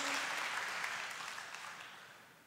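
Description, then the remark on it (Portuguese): A crowd claps steadily, a dense wash of applause that starts strong and gradually softens over a couple of seconds, with no voices on top; the audience is applauding to praise God. “Quem recebe, aplauda a Ele bem forte, de todo o teu coração.”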